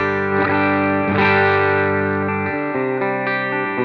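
An electric guitar, a German Tele, plays a few sustained chords through a Dream amp with its drive slightly boosted, giving a mildly overdriven, slightly gritty tone that rings out loud. There is no talking.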